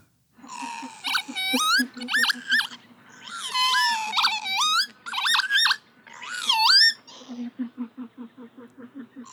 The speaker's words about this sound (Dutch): Ja, dat is de kieviet natuurlijk hè. En het wordt van de week warmer, dus eh, wie weet horen we hem alweer. Eigenlijk wel bizar dat we de kieviet nog nooit hebben behandeld.